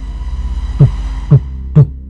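Three dull, heavy knocks on the glass of a building window with a city view of Jakarta, evenly spaced about half a second apart, standing out over a low steady hum.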